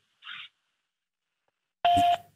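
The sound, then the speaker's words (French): A short hiss-like burst, a pause, then a loud steady voicemail beep lasting about a third of a second, with a harsh, slightly distorted edge, on the voicemail of the Véranda Dubois Menuiserie company. No one speaks. “Laissez-moi votre message après le bip sonore.”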